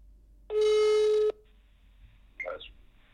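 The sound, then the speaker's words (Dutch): A single steady ringback tone of an outgoing phone call to a fellow singer sounds for under a second, a flat buzzing pitch with harmonics, then stops; a brief faint clatter like the line picking up follows. “Ik bel er een paar op”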